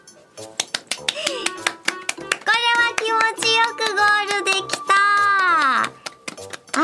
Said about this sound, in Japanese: 今は素直にあの拍手を皆さんしていただいてありがとうございますなんて言いましたっけ私